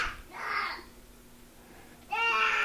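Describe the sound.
A two-year-old boy lets out playful vocal bursts, imitating a monster's growl while trying to eat a pillow: a short strained cry, a longer raspy one, then after a pause a loud, high, tonal roar.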